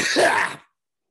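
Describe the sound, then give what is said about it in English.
A single loud sneeze: a sharp, breathy burst that lasts about half a second and then cuts off to silence, with no talking around it. “Oh, bless you. Sorry. Thank you.”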